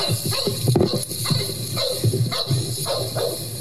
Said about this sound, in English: Yep, there's a dog.